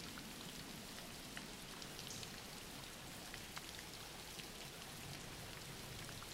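Steady rain falls without pause, a soft, even hiss dotted with brief tapping drops on a surface. It stays quiet and constant throughout, with no voices.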